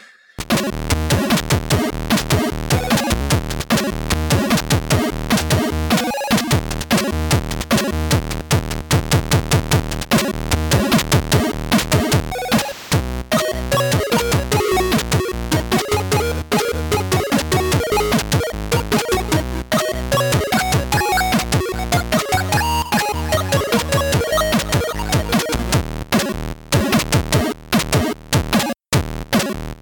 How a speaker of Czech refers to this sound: tam nabouchat prostě jako dvoukanálovou muziku, která má teda jako lepší zvukové možnosti než to Atárko a pak si to můžeš ještě poslechnout na tom Atárku